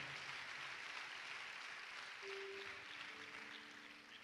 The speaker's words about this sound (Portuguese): Vamos dar uma salva de palmas a Jesus pelo trabalho da Jocum Afeganistão.